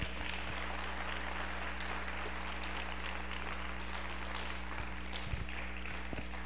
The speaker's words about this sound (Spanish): ¿Cuántos pueden aplaudir a Dios en esta tarde? Un aplauso fuerte para Dios.